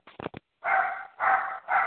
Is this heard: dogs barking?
yes